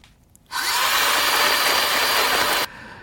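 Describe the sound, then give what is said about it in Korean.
A blender motor roars to life abruptly, whirring and grinding loudly and steadily for about two seconds as it blends ice and fruit, then cuts off just as suddenly. No voices. “얼음 같은 거 넣고 과일 넣고 믹서에 돌리는 소리입니다. 믹서기 소리예요.”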